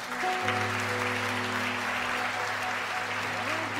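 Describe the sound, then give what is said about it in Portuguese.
A church audience applauds the Lord steadily for several seconds, a dense wash of clapping that stays loud throughout, with a sustained low organ or keyboard tone droning underneath and a few gliding notes near the end. “Pode aplaudir o Senhor mais uma vez”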